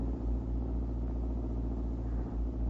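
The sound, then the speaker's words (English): A car drives along a road, its engine a steady, deep rumble that holds constant throughout with a faint hiss of road noise and no voices. “When I'm driving in traffic, I don't have time to think.”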